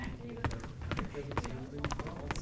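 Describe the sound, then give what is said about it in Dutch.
Video game footsteps walking in a steady, rhythmic repeated pattern of crisp thuds, with a voice talking quietly underneath and other faint steps from many people walking around in the game mixed in. “Ik ga dat even ritmisch zo oplossen, want het is een beetje verwarrend met al die voetstappen, omdat er best wel veel mensen rondlopen.”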